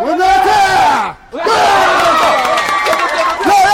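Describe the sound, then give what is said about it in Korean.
Parents of young players cheer and shout loudly from the stands at a youth baseball final, many voices overlapping in excited yells, with a brief lull about a second in before the cheering surges back and stays strong. “또 바로 위에 있는 관중석에서는 부모님들의 응원 열기가 참 뜨겁습니다.”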